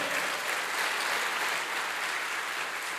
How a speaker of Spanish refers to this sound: Dele fuerte ese aplauso al Señor.